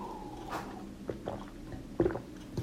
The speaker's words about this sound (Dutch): Ik pak ondertussen even een slokje water.